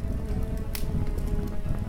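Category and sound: sound effect, crackling fire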